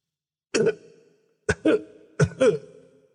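A man gives a series of short, dry coughs: a single harsh bark followed by two quick double coughs, each with a brief throaty tail, separated by short pauses, then stands up.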